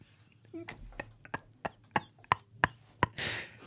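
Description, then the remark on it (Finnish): A small child knocks on a table: about eight light, sharp knocks in a fairly steady rhythm, followed by a brief rustling burst at the end. “Ämeli oksina siihen pöydälle. Pikkuinen kolkuttelee.”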